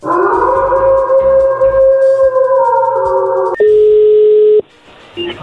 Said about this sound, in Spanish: A ver, no haga ruido, ahí se está marcando.